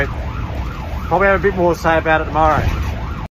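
A loud siren of a South Australian Ambulance Service ambulance on a busy night call-out wails in steady rising-and-falling sweeps, then its tone grows fuller and brighter partway through, with traffic rumble underneath, until it cuts off abruptly.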